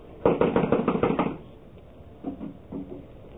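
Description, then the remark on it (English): A quick run of about seven firm knocks on a locked wooden door, followed after a short pause by two fainter, duller knocks. No one speaks. “I'm going to knock. Now listen closely.”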